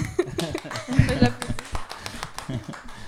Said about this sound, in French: bah, on peut vous applaudir pour votre projet parce qu'il est très très bien.